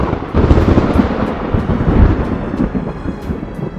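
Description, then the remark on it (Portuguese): A loud, rumbling thunder effect rolls continuously for several seconds, heavy and booming with a crackling edge, like a lightning strike, with no voices present. “O deus segurou o martelo acima de sua cabeça com as duas mãos, invocando todos os raios ali presentes e concentrando-os em sua arma.”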